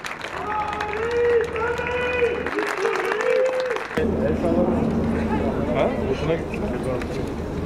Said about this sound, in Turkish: Tören başladı, Erdoğan'a kalabalıktan sloganlar, alkışlar yükseldi.